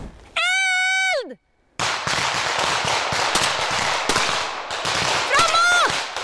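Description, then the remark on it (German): Rifle fire with blank cartridges crackles in dense, rapid bursts for several seconds, loud and continuous, during an exercise in a forest north of Stockholm, Sweden, shooting at an invisible enemy. A long shouted call comes just before the shooting, and another shout rises over it near the end. “Im Wald nördlich von Stockholm schießen sie mit Platzpatronen auf einen unsichtbaren Feind, den Ernstfall immer im Hinterkopf.”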